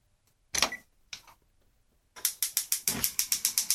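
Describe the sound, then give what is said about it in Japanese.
A gas stove burner being lit to boil water: a couple of short scraping clunks, then a quick, steady run of about a dozen sharp igniter clicks, fairly loud, with no talking. “コンロ。これは今、お湯を沸かしてる”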